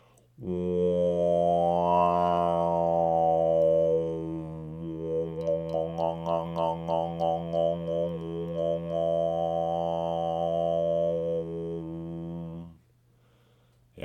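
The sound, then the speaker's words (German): A sustained sung overtone drone using the nasal, open 'on' technique, its overtones sweeping up and down in melodic arcs as the singer opens and closes the ring of the lips, with a rhythmic pulsing passage in the middle; one voice, steady, no talking. “Aber es gibt noch eine andere Technik, das ist die On-Technik, bei der man eben gerade eben diesen offenen Klang sehr gut benutzen kann.”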